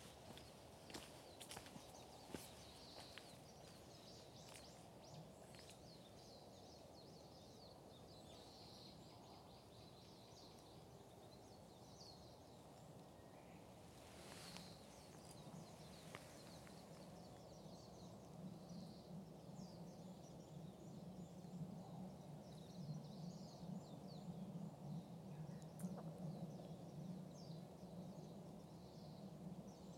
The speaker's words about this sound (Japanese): あ、そうだ、あの、鳥の鳴き声っていうか、さえずりとか、聞いてください。